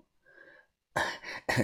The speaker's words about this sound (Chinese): 把头又一连的咳嗽了好几声。